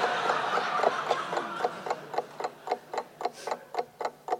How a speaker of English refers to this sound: Oh, oh, it ticks. Listen, I can hear it ticking. Yes, it's a clock.